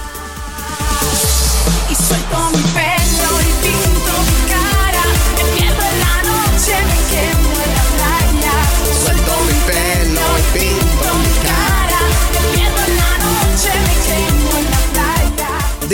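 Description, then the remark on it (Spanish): A 2013 remix of a 90s dance song plays loud, with a pounding steady beat, heavy bass and a sung vocal line running throughout after a brief quieter opening. “Y esta canción pues suena así.”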